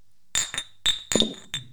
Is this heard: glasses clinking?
yes